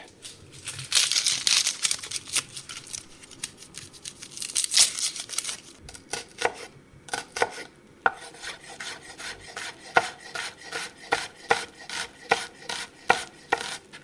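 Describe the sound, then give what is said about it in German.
Someone dices an onion into relatively small cubes on a cutting board: a few seconds of rasping, scraping cuts, then a steady run of crisp knife chops at a brisk, even rhythm, with no talking. “Also wir haben jetzt Zwiebel schon mal gewürfelt, dann in relativ kleine Würfel”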